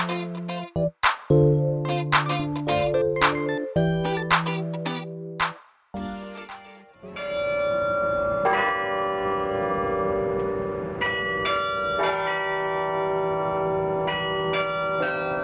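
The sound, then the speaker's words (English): Carillon bells in the UT Tower are played by an electrical engineering student, a quick run of bright struck notes giving way to overlapping, sustained ringing tones that hang in the air. No voices are heard. “That's the sound of electrical engineering junior Alan Chen performing on the UT Tower bells Thursday.”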